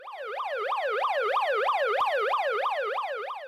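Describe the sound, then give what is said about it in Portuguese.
A wailing emergency siren sweeps rapidly up and down in a steady, repeating cycle, loud and continuous throughout with no voices present. “E quando Bárbara pensou que estava livre para fugir daquela violência, ouviu o barulho de sirenes”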